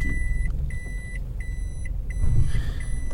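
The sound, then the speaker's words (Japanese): A car maneuvers at low speed to park, pulling forward to correct its position, its engine rumbling steadily while a parking sensor beeps in a regular, repeating rhythm, with no talking. “閉めようと思ったらね駐車がうまくできないっ”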